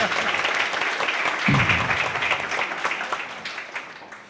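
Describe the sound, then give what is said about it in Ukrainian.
An audience applauds the person who will carry the microphone for a question session with fighters, dense overlapping claps at steady volume that gradually thin and fade toward the end, with a brief murmur of voices underneath. “Дайте оплески Лені, вона буде ходити дуже багато”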